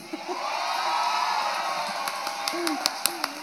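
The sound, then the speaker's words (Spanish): An audience, including people in the upper seats, claps steadily in a dense wash of applause, with scattered whoops and cheering voices rising over it and a few sharper, louder claps standing out near the end. “me encanta, me encanta que la gente de arriba también aplaude.”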